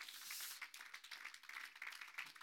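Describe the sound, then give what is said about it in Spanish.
An audience applauds for God in a steady, dense patter of many hands clapping together, fairly soft overall and continuing without pause, with no voices standing out. “Dele un aplauso a Dios, aleluya.”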